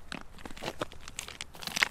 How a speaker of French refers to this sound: tu as ouvert euh, le petit sachet en papier et tu es en train de, de, semer des graines dans les fissures euh, qui contiennent un petit peu aussi de terreau.